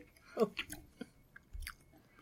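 Wet, open-mouthed smacking as someone chews a mouthful of sucrose-free, stevia-sweetened chocolate: a handful of soft, irregular squelches and clicks over about two seconds, fairly quiet, with no talking.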